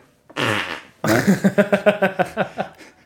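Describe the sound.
Loud fart noises made by squeezing a hand against the elbow crease: one short raspy blast, then a rapid rhythmic string of about a dozen sputtering squelches, with no talking.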